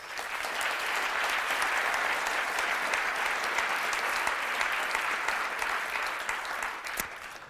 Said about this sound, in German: Einen großen Applaus für Dr. Markus Elsässer.